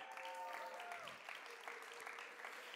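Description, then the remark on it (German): An audience claps steadily to welcome the speaker's assistant, a dense, continuous patter of many hands at moderate loudness with no pauses, and a brief whistle-like tone rises above it early on. “Ein Applaus.”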